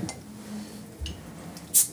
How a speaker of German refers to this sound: Ich darf das hier öffnen mit meinem Schweizer Sackmesser. Ja, hoffentlich. Ja.